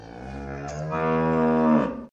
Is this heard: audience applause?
no